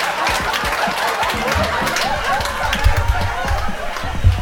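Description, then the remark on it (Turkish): Microphone handling noise as the speaker fixes the position of his microphone: steady rustling and scraping with several dull low thumps as the mic is shifted and adjusted, loud, with no one speaking. “Eh, evet bu duyduğunuz gürültüler mikrofonumun yerini düzelttim.”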